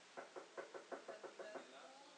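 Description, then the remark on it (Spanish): Someone raps on a door about nine times in a quick, steady rhythm, each knock crisp, with no voices around it. “Cuando son elecciones, ¿quién llega a tu puerta a tocar?”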